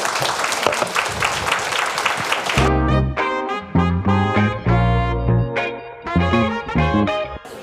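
A room full of people claps loudly for a few seconds, then the applause cuts off as a bright instrumental music sting takes over.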